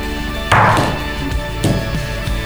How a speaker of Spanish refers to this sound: Bueno, ahora te toca lanzar los ah, dados de vuelta.